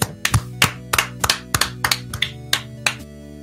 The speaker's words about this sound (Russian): Похлопаем давай.